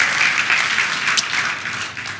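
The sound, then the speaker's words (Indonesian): A crowd applauds steadily for God, many hands clapping together in a dense, continuous wash of bright noise that holds loud throughout before easing slightly at the end. “Berikan tepuk tangan yang paling meriah buat Tuhan kita saudara.”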